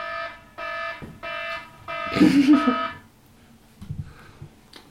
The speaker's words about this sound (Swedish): Det är gaslarm här inne. Det kan vara hippie-cracken som har legat och pyst ut.